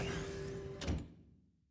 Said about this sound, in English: There was a beep, and the door slid open.